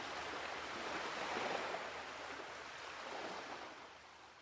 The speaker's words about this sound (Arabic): طب وإذا اختفى الحب شو بصير الصوت؟ ممكن موج البحر ليه؟ لأنه البحر متناقض مرات بيكون غاضب مرات بيكون هادئ مرات بيكون متوتر